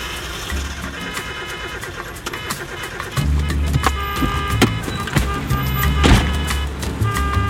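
A car engine cranks and sputters repeatedly without catching, its rough, uneven chugging close and fairly loud, with mechanical whirring and clicks in between attempts.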